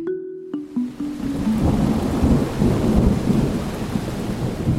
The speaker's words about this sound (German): Ja, so ein richtig starkes Gewitter, das ist doch sehr eindrücklich und es kann vor allem völlig überraschend kommen.